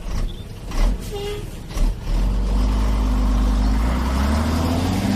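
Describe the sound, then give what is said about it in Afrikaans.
A truck loaded with a family's belongings: its engine rumbles low and steady, with a brief hiss and a couple of clunks early on, before the motor settles into a continuous drone as it pulls away from a town, heading for the city. “Toe alles in die trok gelaai is, vertrek hulle.”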